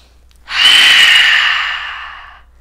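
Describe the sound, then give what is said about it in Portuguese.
A single long, forceful breath drawn through the nose and mouth as a yoga breathing technique demonstration, loud, with a steady rushing hiss that swells quickly and tapers off over about two seconds. No talking. “Então a dica que eu te dou é: faça essa respiração”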